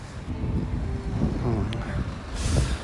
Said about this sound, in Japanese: うわ風がすごい強いめちゃめちゃ風の音が入ってそうな気がするけどごめんなさい